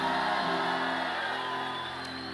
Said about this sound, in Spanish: Alguien está supuesto a pegar un grito de victoria aquí.